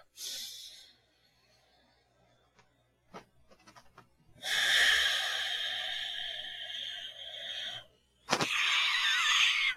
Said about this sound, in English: a five second exhale. I like to do it through the nose on the up and the down. And then at the bottom of the exhale, crunch the abs and breathe through the mouth.